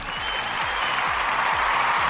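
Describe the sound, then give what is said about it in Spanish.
A dense wash of audience applause, steady and fairly loud, many hands clapping at once with no pauses, sustained for a couple of seconds with no voices. “Aplausos. Aquí están los aplausos.”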